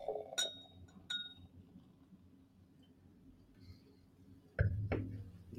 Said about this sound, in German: ich gieße uns noch ein Gläschen ein